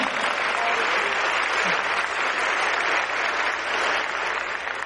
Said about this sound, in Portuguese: Essas palmas foram tão fraquinhas.